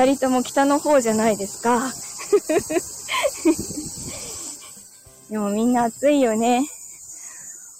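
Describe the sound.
Loud cicadas keep up a steady, high-pitched buzzing drone through the whole stretch on a hot day, with a car thermometer reading about 37 degrees, continuous in the background while a person talks and laughs over it.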